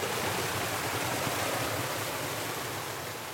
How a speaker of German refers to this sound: In steinernen, etwa einen Meter breiten Kanälen strömt Wasser in die Stadt. Die Kanäle heißen Aflatsch. Das Wasser stammt aus Quellen, aus den Wadis und aus dem Grundwasser.